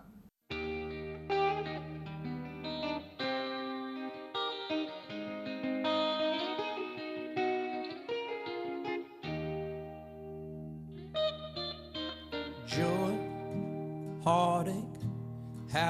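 A rock song plays steadily and loudly, with distorted, effects-laden guitars over sustained low bass notes, shifting chords, and a brighter, busier burst of sound near the end.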